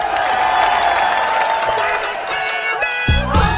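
Warm, steady applause fills the whole stretch, a dense crackle of many hands clapping, with cheering voices and a few higher shouts rising over it toward the end, welcoming the host onto the stage.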